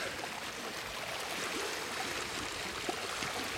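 Water laps and sloshes steadily against a shore, a continuous wash of gentle splashing at an even level, with no voices.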